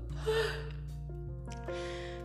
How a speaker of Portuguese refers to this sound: E aí agora eu tô assim, ó, lerda, bocejando o tempo todo.